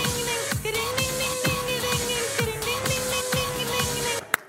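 An upbeat novelty pop song plays loudly with a steady, pulsing electronic beat and bright sustained synth lines, no one talking over it, cut off by a sharp click near the end.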